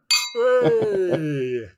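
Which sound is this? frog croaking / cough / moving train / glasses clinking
glasses clinking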